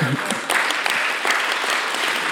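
An audience claps steadily, a dense crackle of many hands with a few louder individual claps standing out, sustained at an even level for a couple of seconds.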